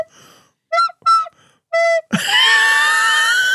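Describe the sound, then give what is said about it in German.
A recorder played badly by someone still searching for the notes: three short, breathy notes in quick succession, then a loud, shrill squeak that holds and wavers harshly until the end, with no talking. “Also an der Blockflöte bin ich die absolute Null.”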